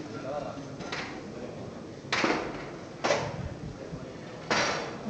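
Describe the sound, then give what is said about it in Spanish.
Several sharp metallic clunks and scrapes as the senior brother and two ensign bearers draw back the bolts of a door, which then swings inward, each clunk with a brief ringing tail, over a steady murmur of background noise. “y ahora el hermano mayor junto con dos alférez empiezan a abrir los cerrojos de la puerta la cruz de guía que debe andar hacia atrás porque las puertas van a batirse ahora hacia adentro.”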